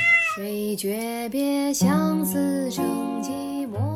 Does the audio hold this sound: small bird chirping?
no